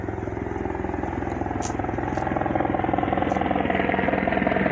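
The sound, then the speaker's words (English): A steady, rapid mechanical thumping like helicopter rotors, loud, growing slightly louder over a few seconds with a constant engine drone underneath. “She back in the helicopter, y'all.”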